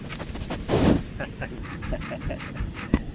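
A dog that is a member of the Blue Water Bay lifesaving club in South Africa pants in quick, rhythmic breaths, with a louder huff near the start and a sharp click or bump near the end. No one speaks.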